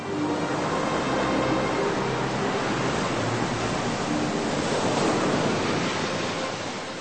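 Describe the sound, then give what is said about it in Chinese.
Rough, stormy sea waves around the ship carrying Hudson Taylor away from Britain roar continuously with a broad, hissing wash and low rumble, steady and loud throughout, with a hint of wind. No one speaks. “船将戴德生带离了英国领土，还没有进入大海，就遇到了风浪，船几乎快沉下去。”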